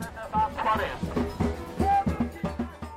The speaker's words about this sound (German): Ein Wirrwarr an Stimmen und Farben. In Dutzenden Zelten entlang einer malerischen Meeresbucht im Stadtzentrum debattieren Vertreter kirchlicher Organisationen mit Indianern, Kleinbauern mit Pfadfindern, Forscher mit Mitgliedern von Müllkooperativen.